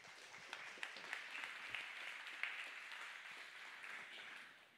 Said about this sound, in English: And so, without me continually uh, blabbering, because I feel like I'm about to cry, uh, can you guys please give a loud, warm welcome